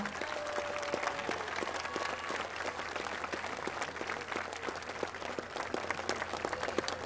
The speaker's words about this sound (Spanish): Román Meyer, que es el secretario de Desarrollo Urbano, merece un aplauso, un reconocimiento.